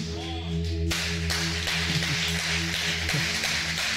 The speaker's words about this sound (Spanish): Y yo creo que él se merece un aplauso más fuerte que ese. Colócate de pie, iglesia.